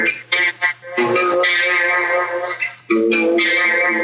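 A distorted electric guitar plays thick, sustained notes with a buzzy, saturated tone through a compressor, noise reducer, amplifier and vibrato, with chorus and reverb switched off, opening with a few short choppy stabs before settling into longer ringing phrases with brief pauses, loud.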